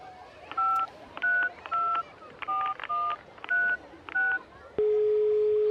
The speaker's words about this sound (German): Ah, wartet mal, jetzt wähle ich mal mit dem Handy die Telefonnummer, die wir ja haben.